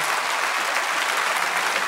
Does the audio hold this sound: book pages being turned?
no